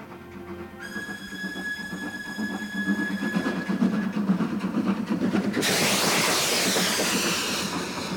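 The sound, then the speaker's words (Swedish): A train headed down to Paris rumbles steadily along the tracks with a low rhythmic clatter, joined by a sustained high squeal that gives way to a loud hissing rush near the end. No one speaks. “Marianne och hennes mamma tar båten till Stockholm och tåg ner till Paris.”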